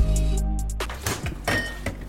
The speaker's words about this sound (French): Aujourd'hui, je vous ouvre la porte de mon frigo. C'est vrai que j'ai la tête dans le frigo pour une émission euh, spéciale consacrée à la nutrition.